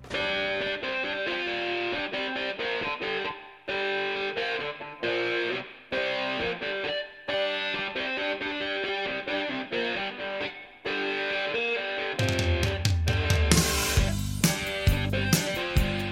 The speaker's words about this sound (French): Aujourd'hui, retour sur un riff sorti des doigts de celui qui, selon vous, est le meilleur guitariste du monde, ce qui nous a un peu surpris,